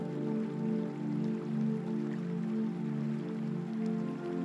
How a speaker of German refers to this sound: Du kannst schon das Rauschen des Wassers wahrnehmen.